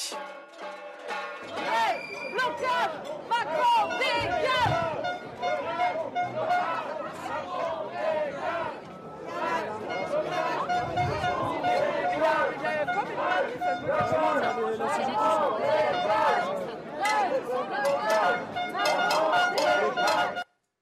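A dense outdoor crowd of about 250 inter-union protesters in Ganges, France, clatters and bangs on saucepans during a presidential visit to a school, producing a constant, loud, irregular rattle of strikes under shouting and chatter for about twenty seconds.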